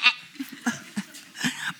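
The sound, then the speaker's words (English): A person imitates a hill sheep's bleat with a series of short, wavering vocal bursts, moderately loud, with a brief laughing quality mixed in. “even if you're like a hill sheep farmer, um, they're quite noisy sheep. You know, they go,”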